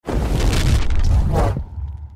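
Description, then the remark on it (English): A loud, roaring volcanic eruption effect: a dense burst of rumbling, crackling noise with heavy low boom that holds for about a second and a half, then quickly dies away. “Would it be A, volcanic activity?”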